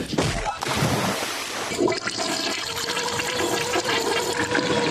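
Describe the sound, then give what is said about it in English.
A toilet flushes with a loud rush of swirling, bubbling water that fills the whole stretch, steady, with some faint voice-like sound mixed underneath. “That's Manfred with the bubbling.”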